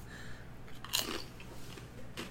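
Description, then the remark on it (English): A crisp crunch as a meat-flavored crunchy snack is bitten with the microphone moved in close, followed by a few softer chewing crackles, with a second sharp crunch near the end and quiet room noise underneath. “Let me move the microphone in so we can get that crunch.”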